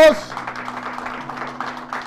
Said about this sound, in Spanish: Denle palmas al Señor, alaben a Dios.